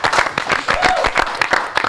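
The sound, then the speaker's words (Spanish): An audience applauds with dense, steady clapping that fills the whole moment at a fairly loud, even level, with a few faint voices mixed into the crowd noise. “Eh, un aplauso para todos los que están allá atrás.”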